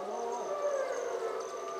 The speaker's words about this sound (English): These are captive bred wolves and wolf dogs. You can hear one of these wolf dogs sort of bark howling. Most of these animals have been rescued from situations of abuse and neglect.